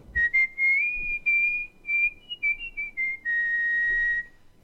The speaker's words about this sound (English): For example, I've developed all these funky techniques as the regular lip whistle, but I can also whistle with my tongue and then go.